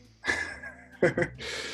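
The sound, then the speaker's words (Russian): Loud breathing: a long rushing exhale, then two quick, gasping puffs of breath and a steady breathy hiss, with no clear words spoken. “громко дышащий”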